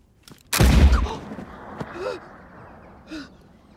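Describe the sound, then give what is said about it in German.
An unloaded pellet gun, with no pellet in it, fires once, releasing no shot, with a sharp, loud burst of air that fades quickly, followed by a few faint breathy gasps and soft clicks. “if you forget to load the pellet, the gun fires, makes a sound, but releases no shot.”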